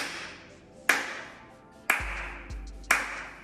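Three open-handed claps demonstrating the 'abierto' (open) technique, evenly spaced about a second apart, each a sharp, bright smack followed by a short fading ring, with a faint low hum briefly underneath.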